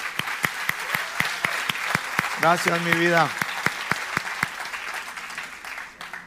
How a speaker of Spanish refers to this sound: Un aplauso para las mujeres.